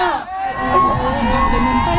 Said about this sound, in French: Et là, qu'est-ce qui se passe On crie la rue, la nuit nous appartient. La rue, la nuit nous appartient.